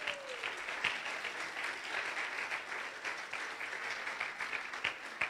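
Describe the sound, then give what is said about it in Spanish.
An audience applauds the Lord of Glory steadily, dense clapping from many hands at a consistent level throughout, with no voices standing out. “Aplaudo al Señor de la Gloria.”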